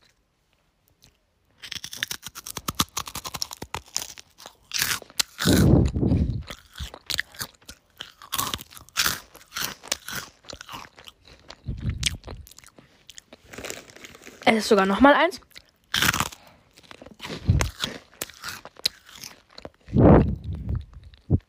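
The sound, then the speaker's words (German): Crunching and chewing as someone eats a rice cake to let listeners hear it: repeated crisp, loud bites and grinding chews in irregular bursts, with a brief spoken remark near the start. “Deshalb esse ich jetzt noch mal so eins, dass ihr halt so hören kann, wie es sich anhört.”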